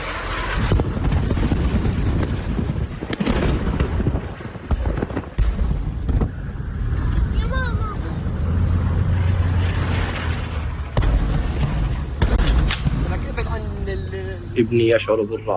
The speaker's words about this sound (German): sein kurzer Film ist ein Zusammenschnitt einer dreitägigen Irrfahrt, während immer wieder rings um ihn Raketen einschlagen. Die ersten 30 Sekunden hören Sie jetzt ungeschnitten. Meine Familie und ich flüchten vor den Luftangriffen auf Gaza.